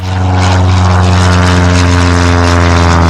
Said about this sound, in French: En 1927, Charles Lindbergh traverse l'Atlantique en avion sans escale et en solitaire pendant 33 heures.